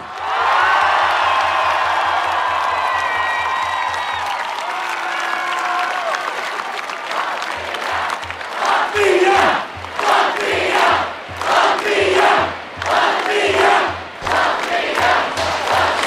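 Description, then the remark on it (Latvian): A large crowd of fans cheers and applauds loudly and continuously for the Latvian national ice hockey team on stage after it won third place in the world, with voices swelling into rhythmic, chant-like bursts in the second half over steady clapping. “Nu, Līdzjutēji turpina uzgavilēt uh, Latvijas izlasē, kas šobrīd atrodas uz skatuves.”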